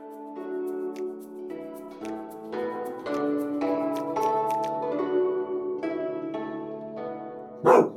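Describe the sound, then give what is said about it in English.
A single loud dog bark bursts out near the end, following several seconds of steady tonal, music-like sound with no talking. “There is a dog among the group.”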